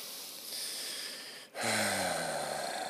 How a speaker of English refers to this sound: Yes, slow and deep breathing. Like, for example, as soon as I start to be sexual with my partner, um, I start breathing deeply and I do a minimum of 15 to 20